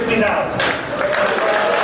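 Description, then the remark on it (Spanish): An auction audience bursts into dense, sustained applause after the hammer falls on a sale of one million pounds closed by phone. Many hands clap at once, with an alarm's steady high tone running faintly underneath and some murmuring voices mixed in. “Pero tras los aplausos, los asistentes reparan en que suena una alarma.”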